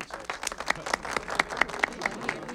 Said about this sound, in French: Je vous demande d'applaudir chaleureusement le lieutenant Frank Drebin.